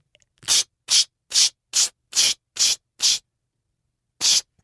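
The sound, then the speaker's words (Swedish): A bottle of eau de parfum spritzes seven times in quick, even succession, each a short airy hiss, then after a brief pause gives one final spray. Fairly loud, with no talking. “För du bara sprayar bara på nacken?”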